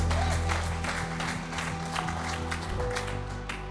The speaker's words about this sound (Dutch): Laten we Hem een applaus geven.